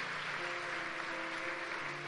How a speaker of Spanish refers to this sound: ¿Dónde está? No se quiere levantar, pero igual un aplauso para... Allá está, hermana, por supuesto.